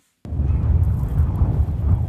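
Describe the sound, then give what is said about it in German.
Strong wind roars and buffets steadily after a sudden start at the border fence between Melilla and Morocco in June 2023, a heavy low rumble with gusty surges throughout and a faint airy whistle above it, no voices. “Es ist ruhig an der Grenze zu Marokko. Der Wind pfeift.”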